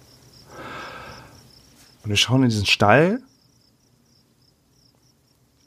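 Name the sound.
crickets chirping sound effect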